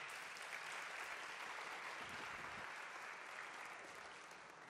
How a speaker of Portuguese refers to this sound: Você pode dar uma salva de palmas ao Todo-Poderoso?